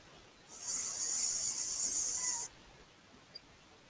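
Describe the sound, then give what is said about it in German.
A voice imitates a mosquito's whine with a steady, high, hissy buzz that lasts about two seconds, then cuts off abruptly into quiet. “Dann kommt diese Mücke.”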